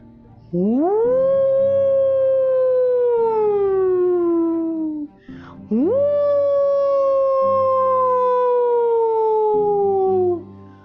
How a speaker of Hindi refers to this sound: पास के जंगल में सियारों की टोलियां